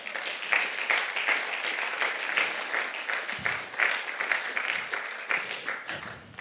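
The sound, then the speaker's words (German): Sustained audience applause, a dense steady wash of many hands clapping at an even level for several seconds with no talking over it. “Geben wir euch ihnen doch einen grossen Applaus.”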